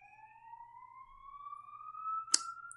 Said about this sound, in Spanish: ¿veis cómo pasa una ambulancia? Anda, mira, una ambulancia.